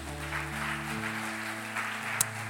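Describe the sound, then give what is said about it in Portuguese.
A round of applause for Jesus during a worship service: dense, steady clapping that holds evenly throughout, layered over sustained low organ-like chords that shift pitch a couple of times. “Vamos dar outra salma de palmas para Jesus?”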